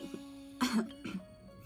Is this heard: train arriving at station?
no